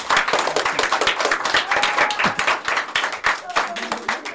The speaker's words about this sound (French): En tout cas, merci, hein. merci, super. Bravo. Alors on peut s'applaudir.